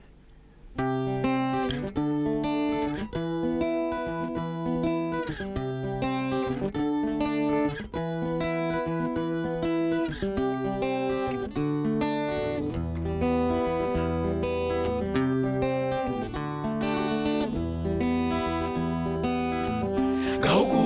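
A song's instrumental opening: after a brief quiet moment, full melodic music with layered tones and a steady rhythmic pulse plays at an even, fairly loud level, with no singing or talking.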